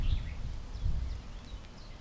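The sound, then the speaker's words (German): Faint, scattered bird chirps, a handful of short high calls over a steady low outdoor rumble by the water. No one speaks. “Ja, an der Stelle sind die Vögel am Zwitschern.”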